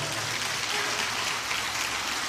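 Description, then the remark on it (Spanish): A church audience applauds loudly for God, the King of Glory, a dense, steady wash of many hands clapping at once that fills the whole stretch without pause, with no individual claps standing out. “Si usted lo cree, le da palma fuerte al Rey de la Gloria.”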